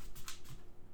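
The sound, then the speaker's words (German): A dog's paws click and tap on a laminate floor, three or four quick, light taps in an uneven rhythm, fairly quiet, with no one talking. “Und das Tapsen im, ähm, auf dem Laminat,”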